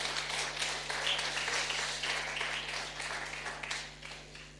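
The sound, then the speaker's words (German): A room full of people applauds steadily for several seconds, thanking those who prepared communion at the tables, a dense wash of many hands clapping at once that tapers off slightly toward the end, with a low steady hum underneath. “Ein Applaus für alle, die heute das Abendmahl hier an den Tischen vorbereitet haben.”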